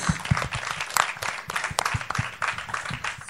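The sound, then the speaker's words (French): An audience breaks into steady applause once more, many hands clapping in a dense, continuous patter with a few sharper individual claps standing out, moderately loud. “On peut applaudir encore une fois Naïtou.”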